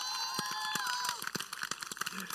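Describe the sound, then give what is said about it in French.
A church audience applauds with dense, irregular clapping that fills the space, joined briefly by a rising whoop or whistle near the start before the clapping carries on alone. “vous savez, les dimanches de rentrée, ok, applaudissez vraiment.”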